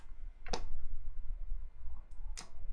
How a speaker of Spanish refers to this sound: Y bueno, damos clic aquí. Damos clic en configurar contenido.